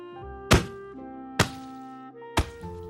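Three heavy, dull thwacks of a club striking a man's body land about a second apart, each a sharp impact over a steady, droning musical backdrop.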